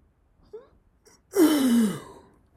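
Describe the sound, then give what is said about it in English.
A person lets out a long, breathy yawn that slides downward in pitch, preceded by a couple of small intakes of breath, fairly loud, with no talking. “I'm out here yawning and stuff.”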